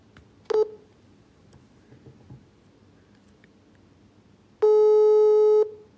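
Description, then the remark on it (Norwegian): A phone's call tone plays over a speakerphone while calling an aunt: a short beep early on, then a long, steady harmonic tone lasting about a second, with quiet background noise and no one answering. “Skal vi se om hun tar opp denne gangen, da.”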